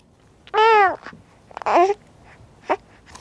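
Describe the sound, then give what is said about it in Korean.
A baby babbles in three short bursts of high, sing-song vocalizing, the first two longer and louder, the last a brief squeak, with no other talk. “아유, 애기 옹알이 소리입니다.”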